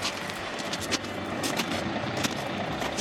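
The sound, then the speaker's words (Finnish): A truck drives past in an industrial area in slushy weather, a steady loud rumble with broad hissing road noise like tires on a wet, slushy street, holding level throughout without voices. “tässä kun tämä rekkanu menee ohi ja saadaan näköyhteys taas autoon, niin siellä näkyy tollanen harmaan sininen Scania.”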